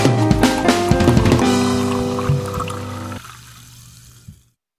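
Fizzy lemonade pours steadily for several seconds, a bubbly stream that thins out near the end and leaves a brief fading fizz before silence.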